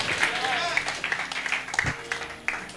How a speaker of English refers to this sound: clap your hands to the lord somebody hallelujah